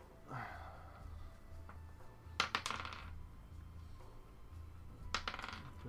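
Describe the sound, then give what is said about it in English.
Dice rattle and clatter across a tabletop twice, each roll a short, bright burst of tumbling clicks, with a quiet pause and a low background hum in between; the dice are rolled for a Constitution check or saving throw. “Do me a favor, uh, roll a Constitution check or saving throw.”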